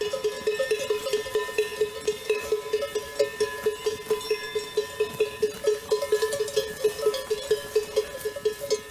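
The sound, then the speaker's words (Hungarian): A large iron bell clanks in a steady, repeating rhythm, swinging with each step of a lead wether sheep as it sets off walking, prominent, with no talking over it. “Itt most elindult a vezérülő, és halljuk szépen a nagy vasát, ahogy szól.”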